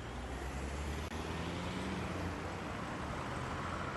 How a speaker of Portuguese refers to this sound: O trânsito fluía tranquilamente e o movimento dos carros era mínimo, por certo temendo a violência.